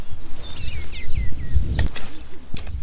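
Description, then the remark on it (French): Spring birdsong in a vegetable garden north of Limoges, France, while a man hoes the garden: a run of quick, high whistled chirps, followed by a few sharp scraping knocks over a low background rumble. “il binait son potager et on entendait bien le chant printanier des oiseaux.”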